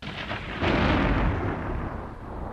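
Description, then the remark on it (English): A deep, rumbling boom swells suddenly and rolls on as a sustained low roar, like heavy thunder rolling through a storm, with no voices present. “Storm's getting worse.”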